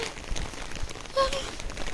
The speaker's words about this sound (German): Äh, man hört, es regnet schon wieder. Heute regnet es den ganzen Tag oder wie es regnet, laut Wetterbericht.